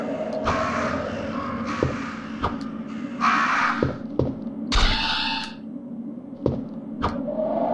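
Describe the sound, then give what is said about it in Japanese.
Harsh crow caws ring out several times in a video game over a steady low game-ambience hum, mixed with sharp thumps and a few brief impacts as the player kills a perched crow with a knife, moderately loud with no one talking. “カラス用にはこのナイフが効くんだよね。あ止まってるカラスを殺した。”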